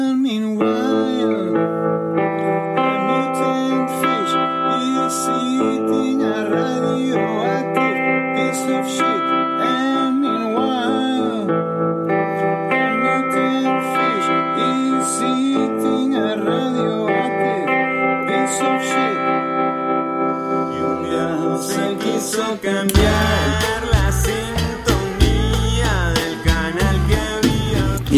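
Slide guitar played through a reverse-mode delay for the verses of a song, with gliding notes that swell in and smear into one another over a steady sustained bed, turning denser and more distorted near the end.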